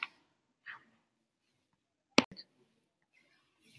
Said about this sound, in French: Oh, désolé, euh, j'ai reçu un message dans mon téléphone de mon copain